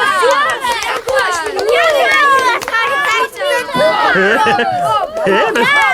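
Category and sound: crowd, people cheering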